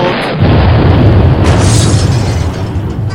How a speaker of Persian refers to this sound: یه تونه ماشین اینجا پارک کرده بود نمیدونستیم توش بمبه منفجر شد